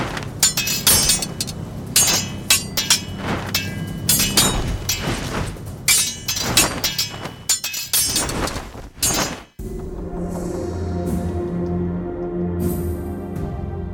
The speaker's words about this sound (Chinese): 两个人抽出宝剑，愤怒的决斗。刀剑碰撞的声音震得大地都在颤动。